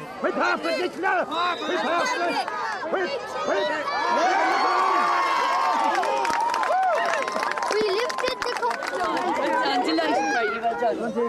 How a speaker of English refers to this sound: This time, her eldest son is here shouting with the rest of the Ladysbridge and Ballymacoda community.